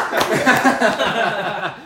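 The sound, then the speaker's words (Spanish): Audience applause, a steady wash of clapping about two seconds long, mixed with laughter and overlapping voices that fade slightly toward the end. “Un aplauso para”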